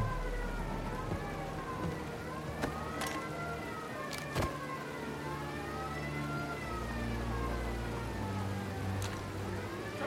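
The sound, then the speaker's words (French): A police siren wails in repeated rising and falling sweeps, moderately loud, over a steady bed of rain and traffic noise, with a few sharp knocks breaking through. “Eh merde, voilà les flics”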